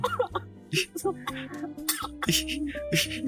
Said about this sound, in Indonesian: jelek banget batuknya